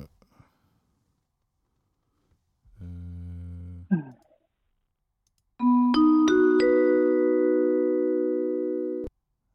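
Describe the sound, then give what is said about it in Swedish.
The Ekot direkt news jingle chime plays from the Sveriges Radio Play app on a phone speaker: a low hum and quick swoop, then several bright notes struck in quick succession that ring together and sustain before cutting off. “Pling plong, pling plong.”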